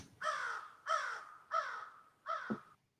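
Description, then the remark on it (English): Four harsh crow caws in a steady, evenly spaced series, loud, each a raspy drawn-out call, with no voices underneath. “Okay, we got some crows and whatnot.”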